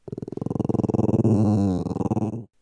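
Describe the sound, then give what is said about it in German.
A dog growls in a low, rumbling, pulsing snarl that swells in the middle and fades out after about two and a half seconds, with no talking. “Der Hund kann sein Maul weit aufmachen, seine Zähne zeigen und vielleicht dabei knurren.”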